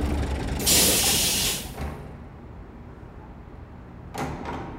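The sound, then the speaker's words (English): A loud, sharp hiss of a bus air brake releasing, followed by a low idling rumble and then a shorter whoosh as the doors fold open, without any voices. “Then, having built her strength, she slowly walked back to the bus stop, then rode the bus till she got back to her apartment building.”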